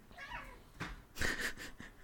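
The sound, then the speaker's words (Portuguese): Cats fighting, yowling and screeching at each other in a short, harsh burst, with strained wailing cries and a sharp, loud squall near the middle, without any talking. “Nossa, Gato. Estão se matando.”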